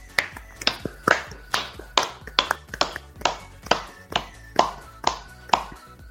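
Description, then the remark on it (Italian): Steady clapping from what sounds like one pair of hands: about fourteen sharp, crisp claps at an even, unhurried rhythm, fairly loud, with no talking over them, given as applause for the evening's viewers at the end of a live stream. “Ma direi che comunque io ringrazierei anche tutti i nostri spettatori che ci hanno seguito questa sera perché sono 5 a luna e siete comunque ancora tantissimi e quindi un bel applauso ve lo meritate.”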